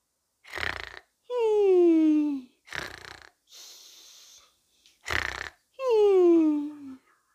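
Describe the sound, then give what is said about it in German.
A person sleeping behind a window snores through two slow breaths, each a rough, raspy snort followed by a long whistling exhale that slides downward in pitch. No one speaks. “Da schläft doch einer hey, komisch, hinter dem Fenster schläft einer.”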